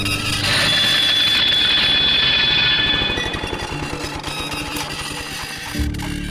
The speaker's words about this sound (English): I was busy in the workshop while a student was using the lawnmower some 50 metres or so away. Suddenly, from the direction of the mower, came a sharp metallic screech.